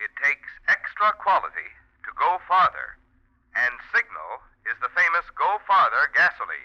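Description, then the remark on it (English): A man's voice reads a short Signal gasoline advertising line through a filter microphone, the narrow, tinny, thin band-limited tone of speech over an old radio or telephone, with brief pauses between phrases. “Now, if I said that through the filter mic, here's how it would sound.”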